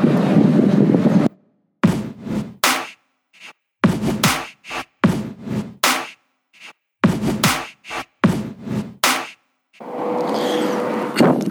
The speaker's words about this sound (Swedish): Eh, det blåser inte lika mycket nu men eh, blåsten finns. Så, så eh, den kommer alltid vara där.